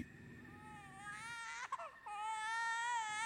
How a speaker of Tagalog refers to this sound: Nang nasa banyo na ako ay may narinig akong iyak ng baby.